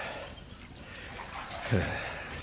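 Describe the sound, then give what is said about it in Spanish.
Water sloshes softly in a bathtub in a steam-filled room with a brazier, a steady, murky wash, then a single louder slosh swells near the end before settling back. “Se oye algo delirante, la voz de Negretti que se entrevera con el sonido del agua que se mueve.”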